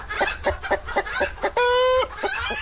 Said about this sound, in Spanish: Se dice que hace mucho tiempo en este lugar hacían peleas de gallos. Mira el terreno.